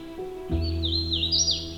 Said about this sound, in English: This yellow warbler with a distinct black hood is a Carolinian forest species and has a couple different songs, but its primary song sounds like a weety weety weetio.